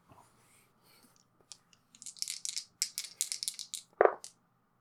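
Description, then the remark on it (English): Dice are rolled for a roll to manipulate someone, clattering in a quick run of sharp, rattling clicks lasting a couple of seconds, ending with one louder knock, after a moment of faint rustling. “Sounds like somebody wants to roll to manipulate someone.”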